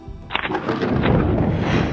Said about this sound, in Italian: A Roma, la notte tra lunedì 7 e martedì 8 dicembre 1970 piove, piove molto.